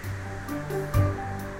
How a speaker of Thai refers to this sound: ขณะเดียวกัน ก็มีลมกันโชกแรงพัดมา เมฆลอยผ่านไป แล้วก็เริ่มกลายเป็นสีดำคลื่นในทะเลสูงเกือบเท่าภูเขาเรือโครงเครงไปมา